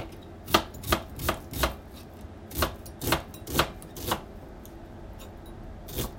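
Knife chops on a cutting board as vegetables are sliced while preparing dinner: eight crisp, evenly spaced strikes, a pause of nearly two seconds, then one final chop. No one speaks.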